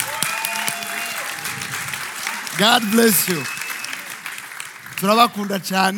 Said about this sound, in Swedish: Det där applåden tillhör Herren